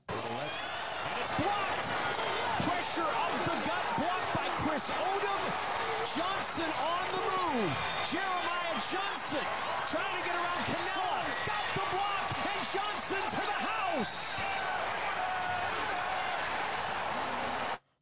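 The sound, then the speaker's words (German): A dense, steady stadium crowd roar during a New Orleans Breakers field goal attempt, many overlapping voices and shouts blending into one loud wash, with scattered sharp knocks and cries rising above it. “Ich glaube, da wurde ein bisschen äh, Stadiongeräusch künstlich eingespielt.”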